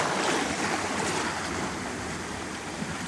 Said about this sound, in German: Und ich mhm. habe oft meine Ferien am Mittelmeer verbracht und liebe, liebe das Meer, liebe die, die Wellen, die Geräusche, die das Meer macht.